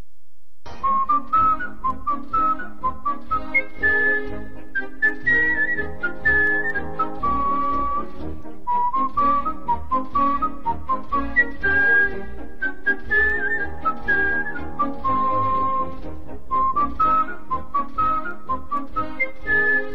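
A person whistles a flowing, high melody of clear, pure notes, sustained and gliding, carried steadily over a fuller accompaniment by the US National Symphony Orchestra. No one speaks.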